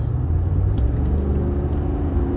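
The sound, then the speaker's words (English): A Toyota Tacoma pickup truck's loud dual exhaust roars in a deep, steady rumble, with low droning engine tones that hold constant for a couple of seconds and no voices over it. “why don't you get a real muffler you goddamn pussy with this fucking toyota tacoma”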